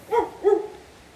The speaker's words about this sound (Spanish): Estamos viendo los riachuelos, calles empedradas. No sé si pueden escuchar el sonido los perros obviamente, por el sonido del agua, de la lluvia, en este pequeño río en el que estamos caminando ahorita. Aquí está el ruido, no sé si lo pueden escuchar